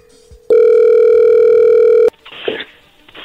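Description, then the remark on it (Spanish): An outgoing phone call rings: a single loud, steady, mid-pitched ringback tone holds for about a second and a half, then cuts off into crackly, muffled line noise. “Bueno, vamos a llamarle a ver qué sucede.”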